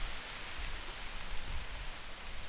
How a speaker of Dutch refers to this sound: Maar het stormt nu echt, hè?